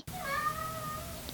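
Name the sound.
cat meowing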